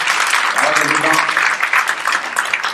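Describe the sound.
An audience claps steadily after a guitar solo, a dense, loud wash of applause that holds for a few seconds, with a brief voice or cheer rising out of it early on.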